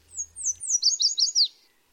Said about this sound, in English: In spring and summer, yellow warblers sing from treetops in city parks and streamsides from Mexico to Canada. These lemon yellow birds especially love willow trees near running water, perfect for building a nest and finding food.